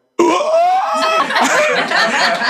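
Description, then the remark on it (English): A sudden, loud, drawn-out shocked gasp from a voice, starting sharply, sliding down in pitch and turning raspy and breathy for a couple of seconds, exaggerated like an imitation. “That's, the most silent gasp I ever heard.”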